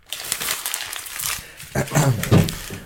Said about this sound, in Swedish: Jag ska inte till Paris utan jag skrunklar ihop pappret.